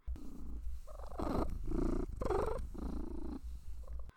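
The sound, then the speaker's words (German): A cat purrs in steady, rumbling cycles, with soft chirping, clucking trills mixed into the purr, while held in someone's arms at an open roof window looking out into the garden. It sounds relaxed and content, with no talking. “Und dann sitzt die da wie eine Eins und knattert und brummt und gluckst.”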